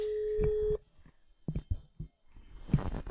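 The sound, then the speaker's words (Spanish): A steady electronic telephone tone sounds for under a second, then stops, followed by muffled rustling and handling noises as the call connects. “llamada. A ver. Vamos a ver si”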